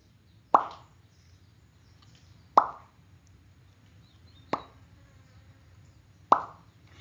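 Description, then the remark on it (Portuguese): In the total silence of the early morning, water drips in slow, steady succession: four crisp plops about two seconds apart, each a sharp bright tap with a short ringing tail, over a faint low hum. “E, e aí eu escutei aquele pingo, né?”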